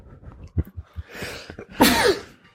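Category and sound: human body sound, sneeze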